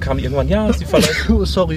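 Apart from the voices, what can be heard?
sneeze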